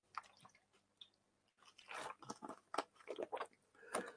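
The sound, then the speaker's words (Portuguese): Wet mouth sounds of someone drinking water: a few sips and gulping swallows in quick succession, with soft clicks between them and no talking. “Só um segundinho, show beber uma água.”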